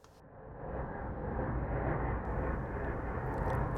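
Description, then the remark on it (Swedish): An airplane engine roar in the intro of a song: a dense, rumbling roar swells up in the first half second and then holds steady and loud, a broad low-heavy drone with no voices over it. “Låter som Norwegian har sponsrat nya EPn.”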